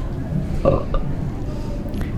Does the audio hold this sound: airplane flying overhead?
no